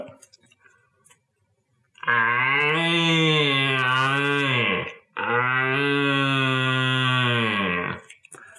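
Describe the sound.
Two long, deep, resonant roaring calls blown through a slightly ribbed plastic tube, imitating a red deer stag's roar to lure a stag, each lasting about three seconds with a brief pause between, loud with no talking.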